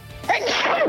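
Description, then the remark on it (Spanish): A single loud sneeze: a short breathy intake followed by an abrupt, explosive burst that trails off in a noisy, voiced gust, with no talking around it. “¡Ay! ¡Jesús!”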